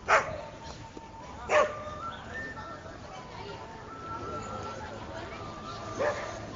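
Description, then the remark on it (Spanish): A dog barks three separate times, two close together near the start and one several seconds later, over a steady background murmur. “Acontece, se mezcla los niños, los chinos, los perros.”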